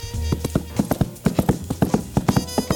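A sound imitator knocks coconut shells together to imitate a horse's hooves: a brisk, steady clip-clop of sharp hollow clacks, fairly loud, with a low hum beneath and no talking.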